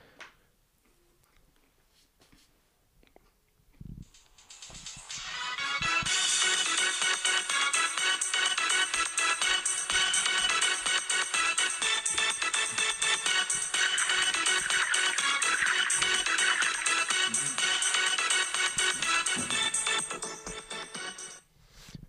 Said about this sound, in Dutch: Ik heb echt een goede ringtone, vind ik. Staat hij wel op geluid aan? Ja, hij staat altijd op geluid aan.